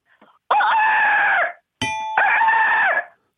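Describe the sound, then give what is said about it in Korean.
A person imitates a rooster's crow twice, each a loud, strained, sustained call lasting about a second, with a brief sharp chime between them, as an entry in a sound-imitation contest. “닭, 닭 소리부터 갑니다. 닭 소리.”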